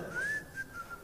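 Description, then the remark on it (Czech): A phone ringtone made of whistled notes plays: a rising tone held briefly, then a few short repeated whistles, moderately loud and clear with no talking over it. “To je telefon, já někdo myslím, já myslím že, nás že, někdo, někdo...”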